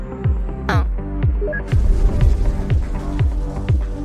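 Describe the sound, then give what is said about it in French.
A sci-fi spaceship landing effect as a spaceship lands on a planet: steady, rhythmic low throbbing pulses under a humming drone, with a brief whooshing sweep early on and a hiss of noise swelling in partway through. “Attention, attention. Atterrissage dans 10, 9, 8, 7, 6, 5, 4, 3, 2”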